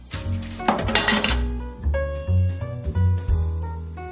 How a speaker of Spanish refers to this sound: Tira la taza al fregadero.